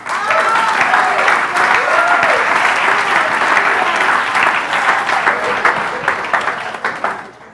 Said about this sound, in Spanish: ¿Cuánto un aplauso al Señor?